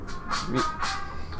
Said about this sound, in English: Sorry, that was my was, alarm. Oh, that that wasn't one of the songs. no, that was my alarm.